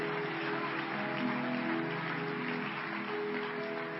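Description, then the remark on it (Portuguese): An audience applauds steadily throughout, a dense, continuous patter of many hands, in praise of the name of Jesus Christ after a prayer, with faint sustained musical tones underneath. “Aplauda o nome daquele que vive.”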